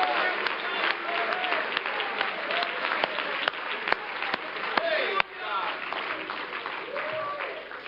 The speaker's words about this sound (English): Give the Lord a hand clap of praise, why don't you?